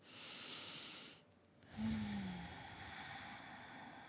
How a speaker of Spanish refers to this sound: Tomando una profunda respiración